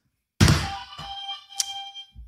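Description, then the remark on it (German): A game buzzer is struck with a hard thump that sets off a bright, ringing tone, which slowly fades over about two seconds while a few softer knocks follow. No one speaks. “Mein Buzzer geht Welcher nicht.”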